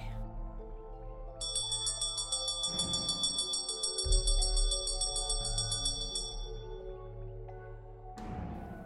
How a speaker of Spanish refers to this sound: Cuando sonó el timbre.